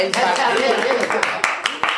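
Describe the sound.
Scattered hand clapping, a few sharp claps standing out over a steady wash of smaller claps, with people talking and chattering underneath throughout.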